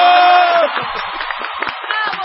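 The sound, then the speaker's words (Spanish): An audience breaks into loud, dense applause mixed with cheering and shouts after singing a birthday greeting; a sustained sung or held vocal note trails off at the very start before steady clapping takes over. “¡Aplausos!”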